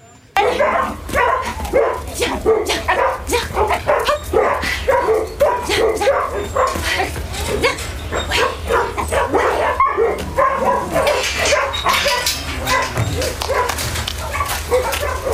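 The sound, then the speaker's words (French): A puppy, bought three weeks earlier, yips and barks rapidly and almost without pause, with high whimpering cries mixed in, loud throughout, while people talk in the background. “Qu'est-ce qui se passe Bah, madame a acheté ce chiot il y a trois semaines et”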